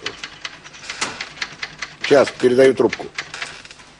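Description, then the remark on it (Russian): Rapid, uneven clacking of keys on a new typewriter fills the opening seconds, then a man speaks briefly over the continuing taps before the typing resumes faintly at the end. “Притащил откуда-то новую пишущую машинку, и вот сидит, печатает.”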